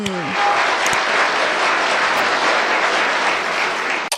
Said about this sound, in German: Oh. oh, was ist mit meinen Händen los. Ich will auch nicht klatschen. Grünäuglein, diesen Beifall hast du nicht verdient. Ich habe jeden Beifall verdient. Schön mitklatschen.